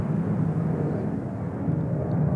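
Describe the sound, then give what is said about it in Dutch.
A steady, low roar of a fighter jet flying overhead, holding at an even level throughout with a broad rushing quality and no voices. “ik ben even aan het wachten op die straaljager, maar ik weet niet of dat veel, of dat veel gaat uitmaken.”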